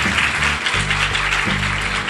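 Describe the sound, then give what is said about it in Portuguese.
A crowd applauds two guests at an event just before an autograph session, with steady, dense clapping for about two seconds, loud and even throughout, over low sustained tones that shift pitch a couple of times. “E acho que a gente precisa dar uma salva de palmas para esses dois.”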